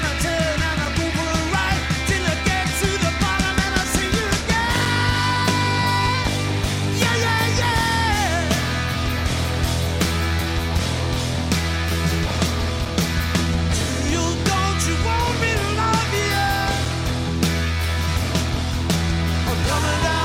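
A loud, full-band rock song plays throughout, with pounding drums, dense guitars and vocals, recorded live and steady in volume from start to finish.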